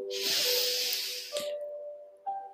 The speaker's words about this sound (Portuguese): Mas o ursinho suspira. Suspira pouco depois. Inspira bem fundo.